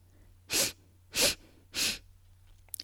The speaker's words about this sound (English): Let's do it again. Ready? Three quick sniffs and a long exhale. Let's do three more. Ready? Three quick sniffs.